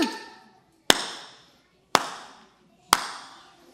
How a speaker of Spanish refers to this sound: Tres aplausos, no más porque nos chiflamos, ¿eh?